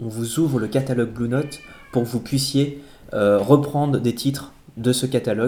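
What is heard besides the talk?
domestic cat meowing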